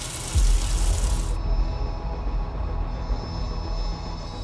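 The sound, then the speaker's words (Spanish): Water runs steadily from a laundry-room tap as iron bars are rinsed under it, a continuous rushing hiss with a deep rumble underneath. It starts abruptly, stays fairly loud, and the bright splashing top thins out after the first second. “Metieron toda la ropa que tenían puesta llena de sangre en bolsas de residuos y limpiaron los hierros que habían usado para asesinarlos en la canilla del lavadero.”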